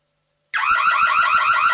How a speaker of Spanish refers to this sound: Todas las alarmas suenan igual, pero no protegen igual.